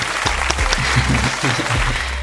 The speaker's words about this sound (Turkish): Buraya bir alkış efekti